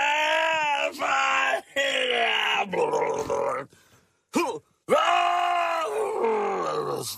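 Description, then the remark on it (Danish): A man loudly imitates his own retching and vomiting, with drawn-out strained groans and shouted heaves in several bursts, harsh, separated by brief pauses. “Øh, jo, jeg råber jo, når jeg kaster op.”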